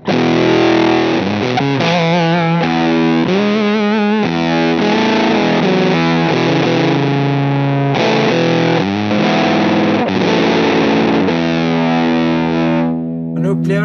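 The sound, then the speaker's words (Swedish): A distorted electric guitar played alone through a gain pedal with the gain at max, with a gritty, overdriven tone, strummed chords and short riffs ringing out steadily and loudly for several seconds before trailing off. “att den är lite liksom, grövre i texturen och inte fullt lika fet och framförallt inte lika mycket gain.”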